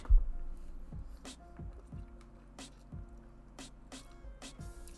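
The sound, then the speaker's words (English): Quiet gulping as someone drinks water during a water break, a series of wet swallows arriving every second or so with soft squishy mouth sounds in between and no talking. “And a third water break.”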